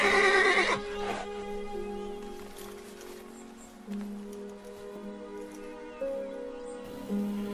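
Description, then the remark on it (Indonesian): A horse gives one loud, close whinny in the opening second, then falls quiet while a soft, steady background hum and faint patter carry on with no voices. “Asma menikah dengan Zubair bin Awam, seorang pemuda dari kalangan biasa yang tidak memiliki harta kecuali seekor kuda.”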